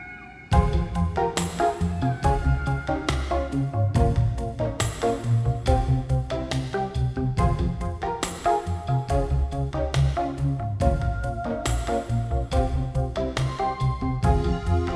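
A French pop song plays on its own, with a steady beat, sustained keyboard chords and a full, warm low end. It carries on at an even, fairly loud level throughout.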